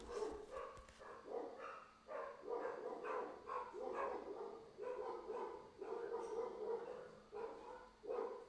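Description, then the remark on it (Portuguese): Several dogs bark at a passing Yorkshire terrier in a steady, excited volley, sharp yaps overlapping almost without pause, loud throughout. “Gente, passa um Yorkshire e meus cachorros quase mata o Rei de Paus embaixo do cinco de Paus.”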